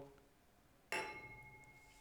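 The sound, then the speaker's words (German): Beer glasses clink together once in a toast, a bright chime that rings on and fades slowly, with no voices. “Prost. Trink Bier.”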